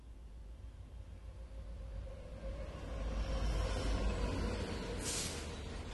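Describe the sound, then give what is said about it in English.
Steady low rumble of an ultra-modern express train in motion, heard from inside a carriage 90 minutes after leaving Tokyo, Japan, with a faint tonal whine and a brief hiss near the end, swelling slightly midway; no voices. “Fast forward some 140 years to the interior of an ultra modern express train that left the futuristic cityscape of Tokyo just 90 minutes before.”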